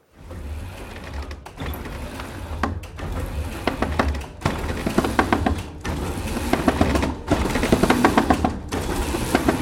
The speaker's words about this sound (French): mais avant ça craque. Qu'est-ce qui craque C'est le beffroi. Donc ce qu'on a entendu, c'est le beffroi de la cathédrale de, Sens.